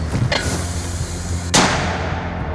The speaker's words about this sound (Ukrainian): Чутно, як із запізненням вони лягають туди, куди треба. Гучною луною ліс повторює гахкання від виходу міни і згодом вже від влучання.